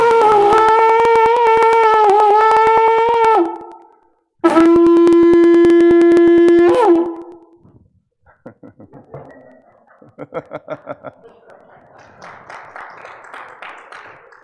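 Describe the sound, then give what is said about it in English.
Two long, loud, buzzing trumpet-like blares, the second after a short pause, seemingly imitated by a voice, followed by laughter and chatter. “They will hear a great trumpet blast.”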